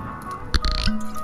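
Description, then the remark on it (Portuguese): A wine jug (garrafão) is opened: one sharp pop, then a brief wet squish and a low, steady hum. No one speaks. “Saguzinho já tá no fogo, agora vamos abrir o garrafão de vinho.”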